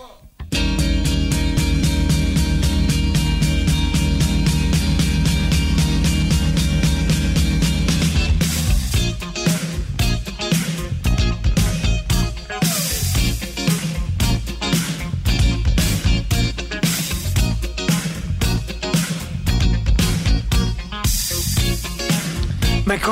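An early, rough demo of a pop-rock song plays loud and up close: sustained chords ring for several seconds before drums join with a steady, punchy beat under dense, full-band music.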